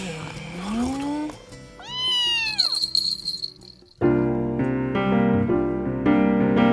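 A cat meows twice, a rising whine followed by a longer, arching meow, before a bright musical passage takes over.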